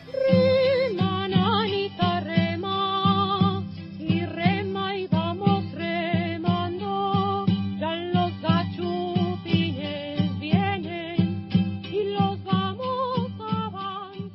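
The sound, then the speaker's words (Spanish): A traditional folk song plays at a steady, lively pace, with a wavering high melody over sustained low harmony and regular strummed accents, loud and continuous throughout. “Bueno, pues ya escucharon ustedes los textos de Hidalgo y de Morelos con esta eh, pues canción del dominio popular eh, que de acuerdo con Carlos María de Bustamante se cantaba antes de entrar eh, a las batallas”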